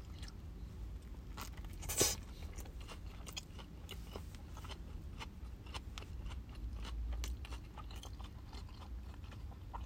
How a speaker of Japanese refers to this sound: では、真ん中にね、トマトの間にレタスが挟まって、うん、あの、チキンと境界線作ってるんで、いい感じですよね。では、いただきたいと思います。では、咀嚼音しますんで、ご注意ください。